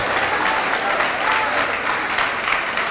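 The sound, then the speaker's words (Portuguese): A large group claps steadily and loudly in praise to the Lord, a dense wash of overlapping applause for the whole stretch without pause or speech. “Ô oh, glória, então aplaude ao Senhor.”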